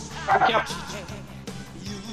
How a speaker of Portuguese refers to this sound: Então, desculpa o latido